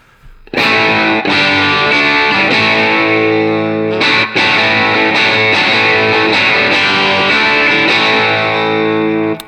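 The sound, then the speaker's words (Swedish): A distorted electric guitar played through an overdrive pedal, with the volume turned down to about 7, plays loud, sustained overdriven chords with a gritty, hairy tone, restruck in a steady rhythm and ringing out fully, with no voices over it. “det är ett kanon eh, …, eh, ja. ett hårigare …-ljud liksom.”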